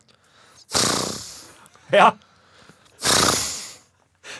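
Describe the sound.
A person imitates a horse snorting in an animal-sound imitation game, with two long, breathy blowing bursts through the lips and a short spoken word between them.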